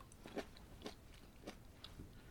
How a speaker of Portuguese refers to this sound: E agora é boa má educação. Tenho que parar. Vou só acabar de mastigar este. Ninguém come a fazer um podcast.